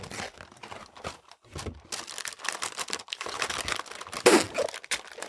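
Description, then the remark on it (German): Crinkling and crumpling of the wrapper of a large 4.5-kilo Toblerone package, filled with many small Toblerones, being unwrapped, with irregular bursts of rustling and a sharper tearing crackle near the end, fairly loud and continuous with no voices. “Und Da, wollte ich ja einen kleinen Snack mit.”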